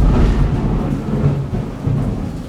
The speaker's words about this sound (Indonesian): ya di sini lagi bertepatan dengan hujan yang lumayan lumayan deras ya mudah-mudahan semuanya baik-baik saja